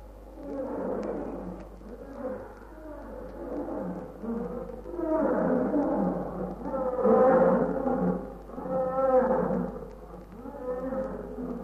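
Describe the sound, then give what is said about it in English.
Several lions, having finished drinking and moving away from a river, roar in overlapping, drawn-out calls, one setting off the others, rising and falling over a steady low hum. The roars build in loudness toward the middle. “No, one lion roar that make others roar.”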